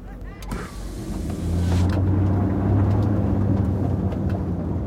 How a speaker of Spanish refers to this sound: Mientras el coche se alejaba dejando una nube de humo, Reed se quedó pasmado.